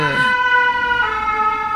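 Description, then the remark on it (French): A fire engine siren wails loudly and steadily as the firefighters pass, its sustained tones shifting slightly in pitch as it goes by. “Eh bien, on va attendre que les pompiers passent avant que je fasse”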